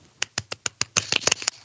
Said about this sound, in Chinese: 掌声鼓励鼓励。